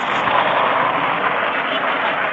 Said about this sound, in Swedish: Okay, Helvete vad det skrölar. Sitter jag där som... Förlåt. Gatuljud kallas det.